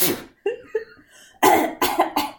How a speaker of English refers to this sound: Nothing sexier than a girl coughing her lung out.